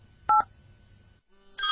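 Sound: mobile phone dialing tones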